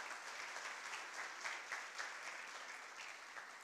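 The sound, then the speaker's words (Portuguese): An audience at a church service applauds God together, a dense, steady wash of many hands clapping that holds at an even level throughout without any voices rising above it. “Podem dar uma salva de palmas a Ele por isso.”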